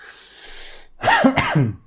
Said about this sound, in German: Da muss ich husten.